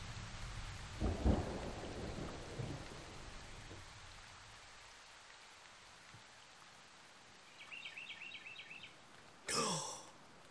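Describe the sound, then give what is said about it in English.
Steady rain hisses throughout while a deep rumble of thunder rolls in near the start. Later comes a faint high chirping, then a sudden loud crack near the end. “Rainbows appear after going through storms, you know.”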